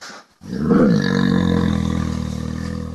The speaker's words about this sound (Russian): Ухо – это орган, который должен делать всего две вещи распознавать речь, чтобы разговаривать, и сигнализировать о звуках приближающегося хищника.